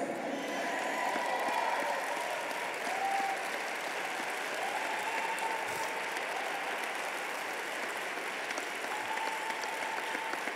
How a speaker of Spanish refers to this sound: Vamos, apládele fuerte a Dios.